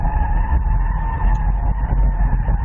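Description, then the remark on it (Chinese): A car takes a large high-speed bend on a small race track: a loud, steady rumble of engine and road noise with a sustained high whining squeal from the tires layered on top, no voices. “好，走一个大的高速弯”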